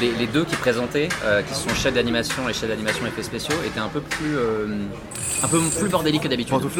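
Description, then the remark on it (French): A high-pitched electric drill whines steadily, starting partway through and continuing under ongoing conversation between people. “Alors, si on a vraiment une perceuse maintenant Hein, c'est Ce bruit de perceuse étant particulièrement insupportable, notre fine équipe va déménager dans quelques instants.”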